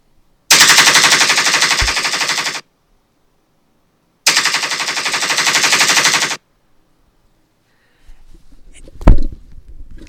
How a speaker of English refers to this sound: Okay, now the gun's loaded. Now we gotta shoot these fuckers.